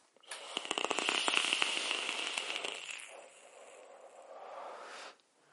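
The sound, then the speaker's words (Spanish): A steady second puff drawn from an electronic vape, producing dense vapor: a bright airy hiss with dense popping crackles for a few seconds, easing into a softer, smoother rush of air before stopping abruptly. “Yo ya me he quedado en single MTL, ¿vale? Entonces ahora mismo me ha entrado un vapor que Venga, segunda calada, va.”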